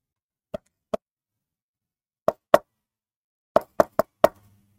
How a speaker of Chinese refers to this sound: 敲门的声音停止了，他又开始继续洗，可是过了一下，又开始敲门了。